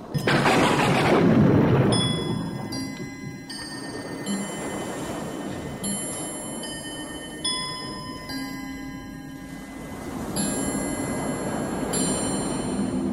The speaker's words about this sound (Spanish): La tormenta sigue con menor intensidad.